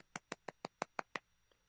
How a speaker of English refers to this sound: That was me um, clapping.